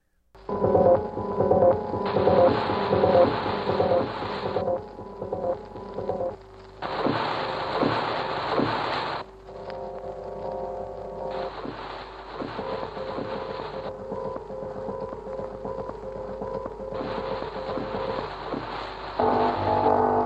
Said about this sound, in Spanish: Y llega la música concreta y de pronto Pierre Schaffer, eh, que de hecho esto fue un poquito antes, en 1948, dice, a ver, les voy a poner esto y vamos a escuchar el estudio de los torniquetes.